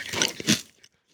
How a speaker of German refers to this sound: Und jetzt wird er sich diesen Chips in den Mund stecken und ich bin auf die Reaktion gespannt. Mund auf. Ich auch. Mund auf. Es war schön mit dir. Und rein damit. Er kaut, er kaut